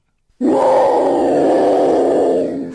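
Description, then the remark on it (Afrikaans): A loud, sustained growl from an angry female leopard starts abruptly after a brief silence and rumbles on steadily for over two seconds, harsh, with no talking. “Sy trek haar oë op skriffies, maak haar bek oop, grom hard en wys haar baie baie lang, baie skerp tande.”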